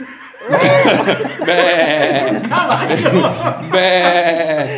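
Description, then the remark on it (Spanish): A person imitates a horse's neigh with their voice: several loud, quavering whinny-like bursts over nearly five seconds, the pitch wobbling up and down. “No, güey, es que mira, tú lo hiciste como caballo, güey.”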